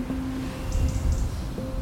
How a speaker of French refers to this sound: Le sophrologue va justement permettre à la personne d'écouter, de se relaxer avec les sons, les oiseaux comme on l'entend autour, le bruit du vent